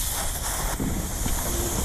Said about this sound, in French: On dévisse euh, la valve du pneu, on insère quelques lentilles, et ensuite on vient la revisser doucement jusqu'à ce qu'on entende le bruit du pneu qui se dégonfle à cause de la pression que les lentilles exercent sur la valve.